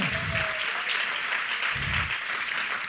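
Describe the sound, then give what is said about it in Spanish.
An audience claps for God in a steady, dense wash of applause that holds at an even level throughout, with low murmurs of voices surfacing briefly beneath the clapping. “Si usted lo cree, déle un aplauso, pero de verdad a Él.”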